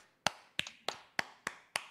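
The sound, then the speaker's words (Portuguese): Six sharp, crisp hand claps in a steady, even rhythm, about three per second, with no voices, like a single person giving a short round of applause for the player Caps. “Uma salva de palmas para o Caps.”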